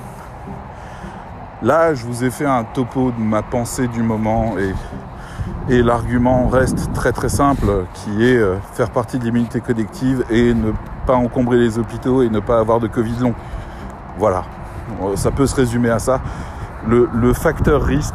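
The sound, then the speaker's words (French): A man talks steadily while wind buffets the microphone, a constant low rumble and rustle running underneath his voice for the whole stretch. “ah je suis désolé pour le vent, on va essayer comme ça comme la dernière fois, vous vous souvenez le téléphone dans le chapeau.”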